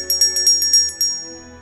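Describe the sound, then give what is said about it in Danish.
The bell at Christiansborg rings to call a meeting in the Folketing chamber of parliament, about eight quick, bright strikes in a steady rhythm. Then its tone lingers and fades out, with no voices. “Og hver gang der indkaldes til møde i Folketingssalen på Christiansborg, ringes der med klokken.”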